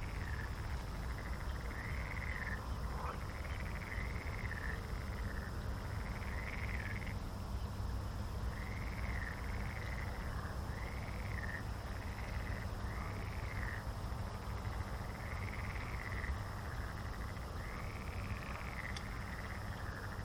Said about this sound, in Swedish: Grodor. Som låter.